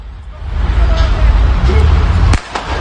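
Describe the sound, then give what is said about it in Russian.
A single sharp pistol shot, fired by a police officer in a played video, cracks out near the end, loud and sudden, as a car starts moving off. It sounds over a steady low rumble of the car engine and street traffic, with faint muffled voices in the background. “И вот автомобиль начинает движение, и в этот момент мы слышим выстрел.”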